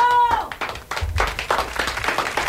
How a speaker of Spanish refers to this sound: cómo te, cómo te, cómo te aplaudo, ¿eh? Claro que sí. ¡Bravo!